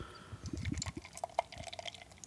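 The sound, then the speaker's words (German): Beer glugs and splashes as it is poured into a cup, a bubbling gurgle followed by fizzing and a few soft drips, leaving plenty of foam, with no voices. “So, ich habe mir echt keine Mühe gegeben beim Einschenken.”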